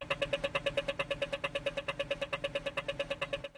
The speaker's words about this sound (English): like the sound that plays when you cross the street in Australia